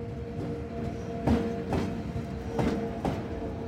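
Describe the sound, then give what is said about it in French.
An electric train rolls slowly into a station, gradually slowing, its motor humming steadily while the wheels thump over rail joints in irregular pairs of clacks, with no voices. “Dans un ronflement de machine, dans un lourd nuage de vapeur, même si c'était un train électrique, la locomotive est entrée en gare, d'une allure solennelle.”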